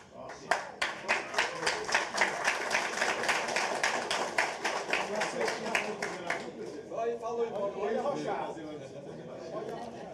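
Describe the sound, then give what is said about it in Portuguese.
Steady, rhythmic audience clapping in unison, loud, keeps an even beat for several seconds, then fades out as voices start talking near the end. “é, obrigado pelo aplauso, gente.”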